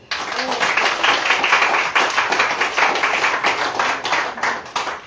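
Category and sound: crowd, audience clapping hands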